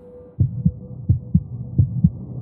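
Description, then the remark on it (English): A low, muffled heartbeat coming from a jar thumps in a steady lub-dub rhythm, three double beats in quick succession over a faint hum, with no voices present. “the heartbeat can be heard from this jar.”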